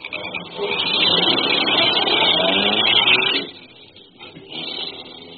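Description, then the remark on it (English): A car engine revs up loudly and steadily for a few seconds, then drops off abruptly, followed by a quieter, fading rumble as the vehicle pulls away. “I got into my car and drove away, but not too far away.”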